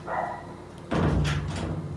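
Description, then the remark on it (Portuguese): Two pet dogs, Bob and Simba, bark back and forth at each other in a rapid burst of loud barks, squabbling without actually fighting, beginning suddenly after a quieter hum, with no talking. “Briga que eu digo assim em latindo, tá?”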